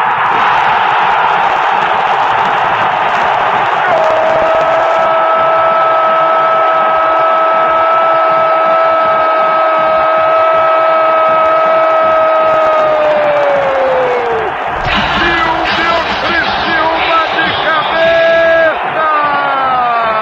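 A stadium crowd roars steadily after the third goal of Esporte's 4-0 rout of Galo in 2003, loud and unbroken, while a long drawn-out shout holds one pitch for about ten seconds before sliding down and giving way to choppier cheering.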